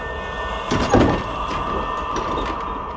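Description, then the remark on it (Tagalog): A door on the ground floor of a red house opens by itself with a brief scraping, sliding rush about a second in, over a steady low background hum. No voices are heard. “Tila may taong nagbukas ng pintuan sa ground floor ng bahay na pula.”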